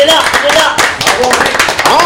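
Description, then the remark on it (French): Steady studio applause for the guest at the end of the radio show Buzz Radio on Énergie, a dense crowd of clapping hands sustained loudly for about two seconds, with voices calling out over the clapping. “On applaudit avant de rendre l'antenne notre invité, bien sûr,”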